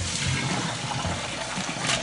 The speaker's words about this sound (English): Okay, so now we got our pot of sea moss. We have our colander and we are ready to get started. So we're just gonna pour everything in.